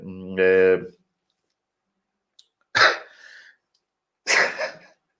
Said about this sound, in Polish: Ach, kichnąć mi się chciało.